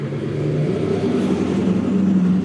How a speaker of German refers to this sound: Wenn der LKW vorbei ist?